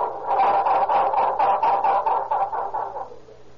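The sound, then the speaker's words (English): A car engine cranks over and over in a steady, rapid chugging rhythm for several seconds without catching as the driver tries to start it, surrounded by a crowd of locals, the labored whirring gradually weakening and fading out at the end. “Surrounded by an inquisitive group of natives, Myers at the wheel listens to the discouraging sound of a laboring start.”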